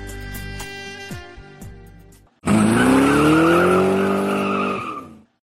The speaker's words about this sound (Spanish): Se metió en el coche y casi en el acto arrancó.